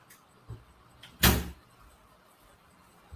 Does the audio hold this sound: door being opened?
yes